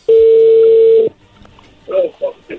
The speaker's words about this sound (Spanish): Bueno, a ver, ahí ya entró la llamada